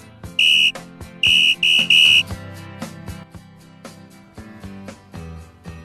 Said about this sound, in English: Well, that's the whistle. That means it's uh, half-time drinks chat, mate.